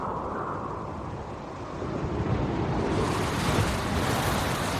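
Strong force-12 storm wind roars over crashing sea waves around a sailing boat in a continuous, loud wash of noise that swells and grows heavier partway through, with no voices present.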